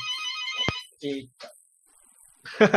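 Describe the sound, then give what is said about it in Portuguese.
A telephone rings with a short electronic melodic tone near the start, followed by brief bits of talking and a louder burst of noise at the end. “Não, tran telefone, tranquilo.”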